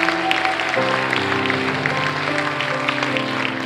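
An audience applauds with steady, dense clapping throughout, while sustained keyboard or organ chords play underneath and shift once early on.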